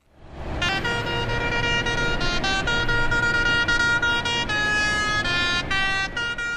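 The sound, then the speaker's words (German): Loud, continuous honking from a convoy of about 50 tractors at a farmers' protest in the Fricktal, Aargau, several horns blaring at once in overlapping steady tones that shift pitch as individual horns start and stop, over a rumbling low background. “Heute hat es jetzt auch im Aargauer Fricktal einen Bauernprotest gegeben, in einem Konvoi von etwa 50 Traktoren.”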